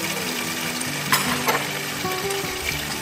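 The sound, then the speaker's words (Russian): Hot water is poured steadily over ingredients in a pan while making a cognac recipe, producing a continuous hiss and sizzle with a couple of brief louder splashes, and no voices. “Все залил горячей водой, блядь.”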